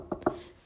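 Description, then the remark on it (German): Two quick knocks on wood for luck, fairly loud, landing a fraction of a second apart with a faint hum behind them and no voices. “Das ist mein Hund, der reagiert immer auf Klopfen.”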